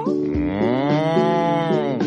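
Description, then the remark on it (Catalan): A cow moos in one long, drawn-out, loud call lasting about two seconds, its low voice wavering slightly in pitch, with no talking. “Ui, les vaques no em ponem pas d'ous, així que jo no et puc pas ajudar.”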